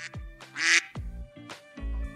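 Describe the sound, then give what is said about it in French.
A duck quacks four or five times in quick succession, loud, each call a harsh nasal burst with short gaps between, and no voices alongside; evoking Bébé, the pet duck of French president Jules Grévy (1879–1887). “Mais rien ne vaut l'animal préféré de Jules Grévy, président entre 1879 et 1887, un canard qu'il appelait bébé.”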